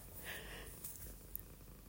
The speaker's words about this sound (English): It's one of our cats, um, Xena, aka Bitchy, that's out here purring. I know it's what cats do, but it's cute.